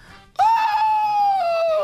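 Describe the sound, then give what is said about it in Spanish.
A person lets out a loud, high-pitched scream imitating a madman, starting abruptly and holding one sustained, wavering wail for over a second before trailing slightly downward. “En un manicomio, señores, se encontraba un, loquito, ¿no? Gritando.”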